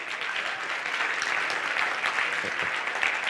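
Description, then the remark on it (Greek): An audience claps steadily, a dense, continuous wash of many hands with no pauses, sustained at an even loudness throughout. “και και να χειροκροτήσετε αυτοβούλος.”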